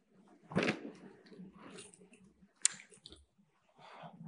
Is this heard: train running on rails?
no